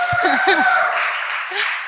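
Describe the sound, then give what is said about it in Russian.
Audience applause, a dense steady patter of many hands clapping that fades slightly toward the end, with a few brief voices and a chuckle mixed in at the start, for an audience member who correctly identified a quotation from the Bible. “Смотри, какие аплодисменты сорвала.”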